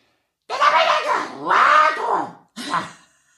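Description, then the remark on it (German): A voice imitates a person screaming in strained, wavering wails: two long cries back to back, then a shorter one after a brief pause, loud. “So fühlt sich zumindest an, weil man immer eine Person schreien hört.”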